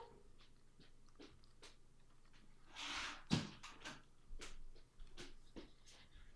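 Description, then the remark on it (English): An open door swings and shuts with a single solid thud midway, closed to keep out a lizard that was walking in, surrounded by soft shuffling and light clicks in otherwise quiet surroundings; no one speaks. “Sorry, my door was open and a lizard was walking in, and you know didn't want that in there, so.”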